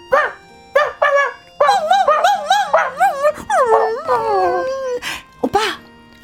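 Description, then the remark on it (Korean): A person's voice mimics a dog outside a gate room at night, with several short yips and barks that slide into long, wavering whimpering whines, fairly loud, with no other talking. “문간방 밖에서 개 소리를 내고 있었습니다.”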